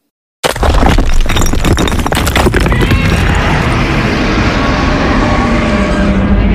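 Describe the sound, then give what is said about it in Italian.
Cyclops giants stomp and smash through the stone walls of a labyrinth: a sudden, loud burst of crashing and crumbling debris, with heavy repeated impacts early on settling into a continuous thunderous rumble. “Stolti, questi giganti pur di prenderci il labirinto lo distruggono.”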